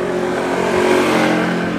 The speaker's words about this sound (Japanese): 今バイクがね通りましたけど